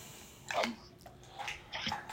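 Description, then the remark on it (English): A drink is poured into a glass in three short gurgling bursts, fairly quiet, with no one talking. “let me pour some more.”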